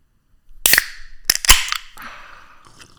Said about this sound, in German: Ähm, ich komme nochmal zurück auf mein, auf mein ursprüngliches Thema, indem ich jetzt hier erstens die Dose aufmache, die ich vorhin vergessen habe.